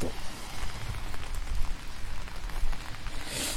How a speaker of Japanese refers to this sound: じゃあね、朝の散歩に行きたいと思います。ちょっと傘さしてるからね、雨降ってんのに行くっていうね、ちょっとどうですか、この雨の音。